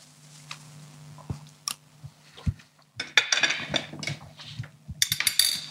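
Clinks of shell and cutlery as a raw oyster with lemon is eaten, then wet slurping and chewing sounds in quick bursts, with a hum of background noise underneath and no talking.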